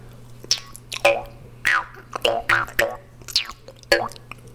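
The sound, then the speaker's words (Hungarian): A muffled jaw harp fitted with a self-devised damper twangs in a quick, uneven run of about a dozen boingy plucks over a steady low drone, each note bending in pitch with a gurgling, wah-like wobble. “használják a dorombot, de kitaláltam hozzá egy ilyen tompitot.”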